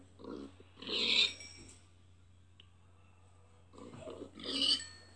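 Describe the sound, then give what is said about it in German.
A video game pig grunts twice, each a short squeaky oink-like burst about three seconds apart, clear over a faint steady background hum. “So, ich habe mal zwei Schafe getötet, Schweine getötet.”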